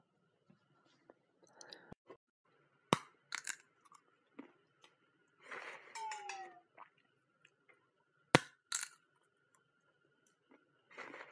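Sharp, irregular cracks and crunches of sunflower seeds being split between teeth, a few loud snaps among softer nibbling clicks and chewing, with no talking.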